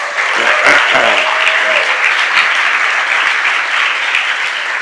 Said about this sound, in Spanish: Si están de acuerdo, aplauden